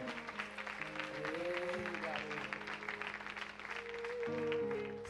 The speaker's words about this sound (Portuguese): Vamos aplaudir o Senhor pela vida desse homem.